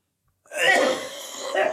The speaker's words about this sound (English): I'm just gonna let him cough.